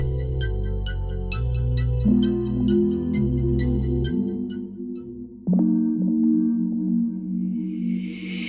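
An instrumental song intro plays loudly, with deep stepping bass chords and steady crisp hi-hat ticks, then a brief shift midway and a rising noise sweep building at the end. No voices.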